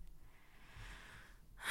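A person with a breathing problem takes a sharp, noisy intake of breath through the nose, a quick snort ending in a burst of hiss with no talking.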